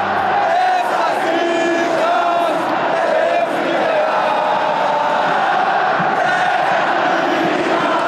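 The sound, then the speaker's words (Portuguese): A huge crowd of football fans at the Corinthians stadium in Brazil chants loudly in unison, a dense, sustained roar of voices with no pauses, singing louder after the referee stopped the match in the second half. “Os torcedores responderam cantando mais forte”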